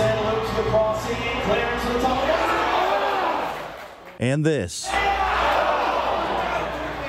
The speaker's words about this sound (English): And we didn't either when I was in the crowd at City Park this week for the game against Iran there was plenty to cheer about, but in soccer, there's a lot of this.